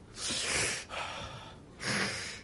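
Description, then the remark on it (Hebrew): A person imitates the labored, wheezy breathing of someone with asthma who has a breathing device on the nose: three loud, rasping breaths, with an inhale, a raspy exhale and another strained inhale, no words. “הייתי בגלל בן אדם עם חולה אסתמה, עם, עם מכשיר כזה על האף, מסכן.”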